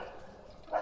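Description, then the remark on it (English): A dog lets out a single short, playful bark near the end, fairly faint, as a Shih Tzu chases a boxer through a backyard, over a quiet background with no one talking. “Believe it or not, that's a love bark.”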